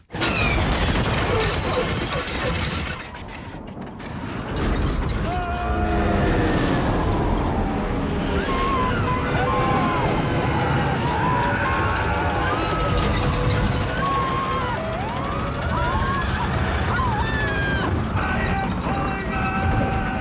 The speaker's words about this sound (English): I do like a lot of pitch ramping on stuff just to try to, you know, make it fun, basically. And have a lot of beats and just not have it be a wall of sound and have it just kind of be as much musical as you can for crashing a plane into the tundra.